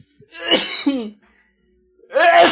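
Two loud, close sneezes, each a sharp burst of breathy noise ending in a short voiced note, separated by a second or so of quiet.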